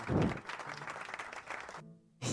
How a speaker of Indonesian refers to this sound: Eh, tepuk tangan sih.